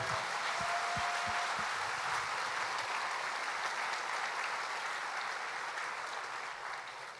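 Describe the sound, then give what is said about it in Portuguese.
An audience in Marília breaks into loud, sustained applause, a dense wash of many hands clapping at once that holds steady for several seconds before easing slightly at the end. “Então dê a melhor salva de palmas que Marília já viu.”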